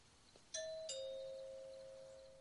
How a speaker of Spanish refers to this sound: Llama al timbre.